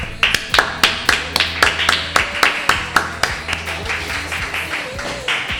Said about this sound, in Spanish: Y, además hoy nos ha gustado tanto que además te vamos a dar este aplauso. ¡Bravo!